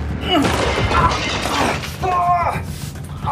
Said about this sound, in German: Doch bevor Richard zugreifen kann, springt René zurück und zieht blitzschnell an einem mannshohen Regal, das direkt neben ihm an der Wand steht, sofort umstürzt und auf Richard fällt.